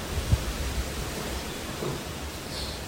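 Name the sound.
strong typhoon wind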